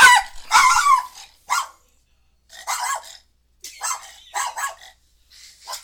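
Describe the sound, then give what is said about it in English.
A dog barks repeatedly in short, sharp bursts with brief pauses between them, loud, the first barks rougher and louder than the later ones. “You ever notice when he barks, his asshole fucking opens up?”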